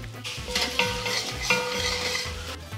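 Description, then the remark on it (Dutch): Vegetables simmer in coconut milk in a pan, a steady bubbling and sizzle with a few soft scrapes of stirring, continuous throughout with no voices. “We gaan de kokosmelk en de bion toevoegen aan, ehm, eh, aan de groenten. En even laten sudderen.”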